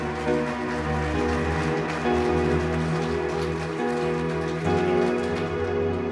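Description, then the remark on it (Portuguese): An audience claps loudly and steadily in applause to the Lord, a dense wash of many hands that holds for several seconds over sustained musical chords, with no voices. “Aplauda bem forte ao Senhor, vamos juntos.”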